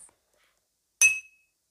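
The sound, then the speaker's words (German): A single bright, high-pitched ping strikes sharply, like a tap on glass, and its clear metallic tone rings on briefly before fading into silence. “Na, dieses, dieses Ping-Geräusch.”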